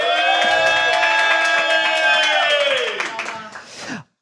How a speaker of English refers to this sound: Yeah, applause.